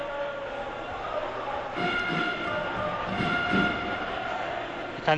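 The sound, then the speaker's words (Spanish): A large stadium crowd at the Virgen de la Cabeza roars steadily before a penalty shootout, a dense wall of voices with sustained, horn-like tones on top, swelling louder around the middle and again briefly at the end. “Escuchad el Virgen de la Cabeza que se ha venido abajo.”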